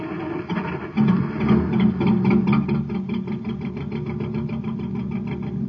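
A car engine, the cosmic surface car in the Space Patrol story, runs roughly and unevenly, sputtering with a rapid, rattling pulse that stays fairly loud for several seconds, with no one speaking.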